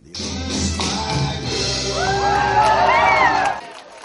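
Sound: audience cheering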